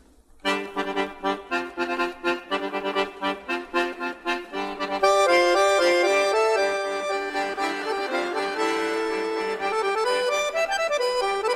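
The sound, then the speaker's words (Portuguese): The frevo 'Vassourinhas' played by a Chinese musician in a Chinese musical style, opening with crisp, rhythmic plucked notes before a sustained, bright melody swells in, loud with no voices. “Mas isso, vamos ver o seguinte: o frevo dos vassourinhas tocado por um chinês.”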